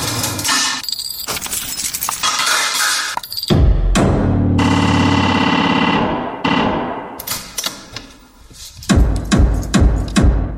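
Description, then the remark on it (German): Rhythmic music made from recorded club sounds that were sorted, cleaned up, edited and transformed: clattering metallic hits swell into a loud sustained low drone, then return to sharp percussive bursts in a loose beat, with no voices. “Mit diesen Sounds habe ich dann ja erstmal aussortiert und bereinigt und dann habe ich angefangen, die Sounds zu bearbeiten und umwandeln.”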